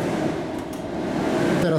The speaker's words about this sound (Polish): jedną ręką trzymam mikrofon, a drugą jestem przy suszarce, trzymam rękę, bo jest fotokomórka